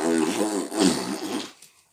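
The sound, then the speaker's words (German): A loud, buzzing fart sound about a second and a half long, wavering in pitch before trailing off, likely made with the mouth as a raspberry rather than a real one. “Geiler Furz.”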